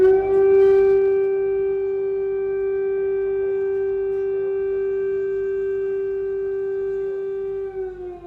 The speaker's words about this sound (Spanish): Sonaron así por primera vez las sirenas antiaéreas y los tanques rusos se quedaron a 10 kilómetros del Parlamento ucraniano.